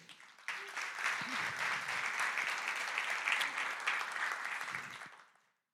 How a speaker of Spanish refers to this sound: Así que darte un fuerte aplauso por eso.